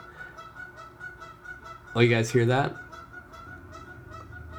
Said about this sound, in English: That's the uh, that's the goose. But now there's another one on on the roof. They're recruiting. Sorry, I'm totally like being the kid with ADD looking out the window like, oh, butterfly, but it's a goose.